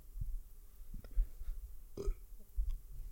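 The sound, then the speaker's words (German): A single short, low burp erupts, surrounded by faint rustling and low background rumble, with no talking. “Ich habe gerülpst.”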